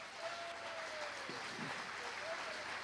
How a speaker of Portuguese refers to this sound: Quem é corajoso aqui? Então bata palmas para Jesus.